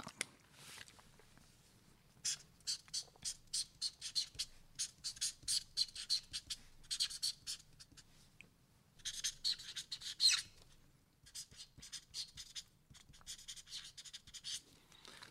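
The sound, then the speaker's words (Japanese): A pen scratches and squeaks across a stiff shikishi board in bursts of quick strokes as a person writes their dream for five years ahead, with short pauses between words being written, fairly quiet with no talking. “では59歳の夢をそちらの色紙に書いていただけるでしょうか”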